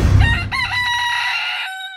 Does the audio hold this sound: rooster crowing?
yes